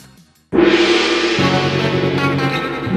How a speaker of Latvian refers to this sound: Signāls pēc signāla pēdējā izšķirošā kārta.